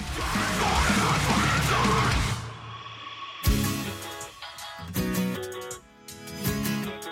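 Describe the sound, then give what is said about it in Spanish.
A loud, raspy heavy-metal-style scream rips out over dense noise for about two seconds, then gives way to strained, sustained wailing cries that break off and restart several times. “Es un grito heavy.”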